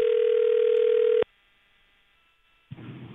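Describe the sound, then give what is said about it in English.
A single steady ring tone sounds over a phone line during a call on CBS Sports Radio's After Hours, then cuts to near silence before a voice starts speaking at the very end. “Who's it calling?”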